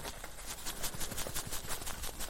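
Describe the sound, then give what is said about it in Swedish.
Dry, papery rustling and soft crackling as loose tea, bought in a small supermarket in Tanzania, shifts inside a tea bag, a steady series of gentle scratchy bursts with no voices. “Det är ljudet av en tepåse. Teet som flyttar sig i en tepåse.”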